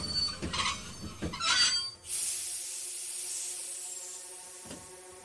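A train rumbles and clatters, then its brakes give a sustained high, hissing screech as it slows to a halt, with a faint clunk near the end. No one speaks.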